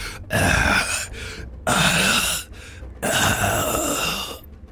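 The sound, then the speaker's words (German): A voice imitates the heavy, ragged panting and groans of a badly wounded man bleeding from many wounds: three long strained breaths in a row separated by short pauses, loud. “immer nur seine blutüberströmte Gitarre hinter sich herschleifend, schwer angeschlagen, aus vielen Wunden blutend und keuchend.”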